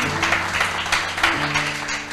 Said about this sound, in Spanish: Así que déle un lindo aplauso de recibimiento.